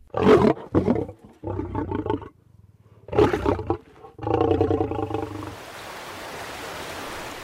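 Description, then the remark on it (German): A lion roars twice, each deep, rumbling call fading into a series of throaty grunts, loud, before the sound gives way to a soft hiss of background noise. “In manchen Nationalparks leben sogar Löwen.”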